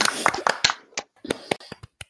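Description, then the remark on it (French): Brief burst of hand clapping welcoming a guest just introduced, roughly a dozen sharp, uneven claps over two seconds, loud at first and then thinning into a few scattered final claps. “J'ai failli oublier d'applaudir.”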